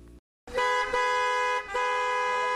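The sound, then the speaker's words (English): Car horns blare in heavy traffic on a Friday evening, a brief silence giving way to loud, sustained honks that overlap and briefly dip before pressing on, with no voices. “What a busy traffic on this Friday evening!”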